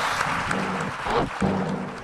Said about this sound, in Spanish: Muchas gracias, gracias Un gran aplauso para él por llevarnos de viaje.